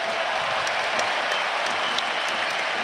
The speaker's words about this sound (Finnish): Nokia Areenan kuutiolla toivotetaan tervetulleeksi tasavallan presidentti Sauli Niinistö tähän tapahtumaan ja kyllä nämä aplodit jotenkin kertoo siitä, kuinka suosittu presidentti meillä on tehtävänsä jättämässä.